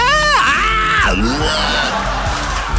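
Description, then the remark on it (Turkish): A loud, anguished scream of torment sweeps high and falls in pitch, breaks into a strained wail, then trails into harsh, ragged groaning, seemingly a person voicing sounds of unbearable torture, presented as the sound coming from an imagined zombie radio station, Zombi FM. “Sırf insan beyni tarifleri ve dayanılmaz işkence sesleri yer.”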